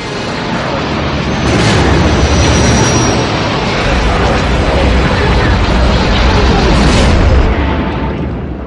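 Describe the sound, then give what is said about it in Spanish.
Loud sci-fi spaceship chase effects of an imperial destroyer pursuing a rebel ship: a dense, continuous roaring rumble with booming engine noise and two sharp whooshing flybys, one early and one near the end, filling the whole stretch. “Sabemos cómo suena el rugido de un T-Rex o la persecución entre un destructor imperial y una nave de la rebelión.”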